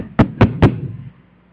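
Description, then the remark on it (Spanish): Three firm knocks on a door in quick, even succession, loud, followed by a brief fading resonance and quiet room tone, as Jehovah's Witnesses knock at a door. “y tocan y tocan.”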